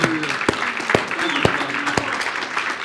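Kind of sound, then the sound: crowd, audience applause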